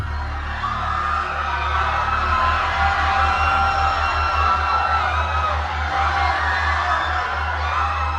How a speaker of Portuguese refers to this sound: Centenas de vozes lamentando, todas chamando, todas implorando para serem libertadas, implorando por misericórdia.